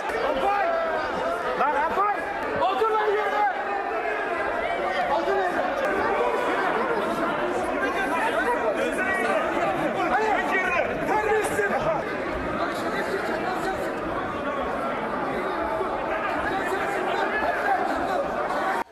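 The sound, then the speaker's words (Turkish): A dense uproar of many voices shouting and talking over one another, loud and continuous throughout, with no single voice standing out: AK Parti and CHP lawmakers in parliament rising up after remarks by Özgür Özel, with fists raised. “Özgür Özel'in ifadeleriyle AK Parti CHP milletvekilleri ayaklandı. Sonrasında yumruklar havaya kalktı.”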